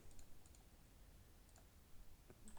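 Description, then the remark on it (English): Quiet, scattered clicks of someone typing on a computer keyboard while looking up Devin Singletary's fantasy football points, a handful of light keystrokes in short irregular bursts over a low background hum with no voices. “Clickety clack, clickety clickety, as you hear my keyboard.”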